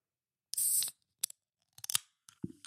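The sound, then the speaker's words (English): A soda container is opened: a sharp burst of hissing gas, followed by a few crisp clicks and crackles and a short fizzing rustle at the end, with no talking. “This is the sound of it opening, so you know that it's legit.”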